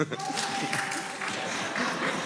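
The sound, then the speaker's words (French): An audience of about 800 people applauds steadily for a couple of seconds, voting by applause against a proposed law on menstrual leave; a dense, even patter of many hands, with crowd voices and a faint sustained tone mixed into the clapping. “Alors par applaudissement, qui est contre”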